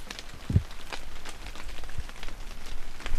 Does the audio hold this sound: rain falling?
yes